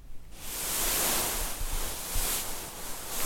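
A soft, continuous rustling hiss swells up after a brief quiet start, like tiny beads shifting and settling as someone sinks into a bead cushion, steady with no voices; used as a sound effect.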